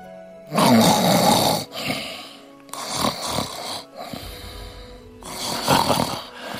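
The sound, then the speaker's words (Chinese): A man, the chancellor Wei Zheng, snores in his sleep slumped over a chessboard in the palace: three loud, rasping, drawn-out snores, each about a second long, with a rumbling low buzz and short quieter breaths between them. No one speaks. “他们下了一盘又一盘，突然魏征打了个哈欠，趴在棋盘上睡着了。”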